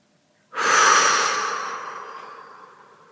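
After a brief silence, a single long, breathy exhale rushes out, loud at first and then slowly tapering off, with no talking; the breath is released after deeply breathing in and holding it during a guided breathing exercise.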